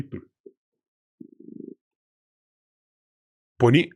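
A domestic cat weighing 7 kilos purrs in short, low, rapidly pulsing rumbles that start and stop, then a brief, louder voice-like sound cuts in near the end.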